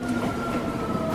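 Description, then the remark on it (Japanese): A train rumbles steadily at JR Nakano Station in Japan, its continuous low roar carrying a sustained mechanical whine, with no voices over it. “え ?JR の中野ですね、これは。”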